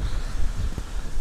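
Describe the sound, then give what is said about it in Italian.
Steady low rumbling wind buffeting a microphone clipped to a sweatshirt outdoors, a dense roar concentrated in the low end with brief gusty swells, fairly loud, with no voices. “della felpa e con sto vento mi si, mi si sballotta tutto, invece così ecco, così non dovresti sentire ancora meglio”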